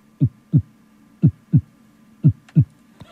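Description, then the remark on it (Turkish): Slow, steady heartbeat at a calm, normal resting rate of about 63-67 beats per minute, with clear lub-dub pairs of low, muffled thumps, about one beat per second, distinct over a faint background hum. “O ses öyle midir hocalarım yani 63-67 diyebilir miyiz?”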